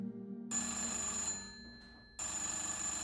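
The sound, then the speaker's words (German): An old-style telephone bell rings twice around midnight in Gila's room, a loud metallic jangle that trails off briefly before the second ring starts, with no voices. “da klingelt in Gilas Zimmer auf einmal das Telefon.”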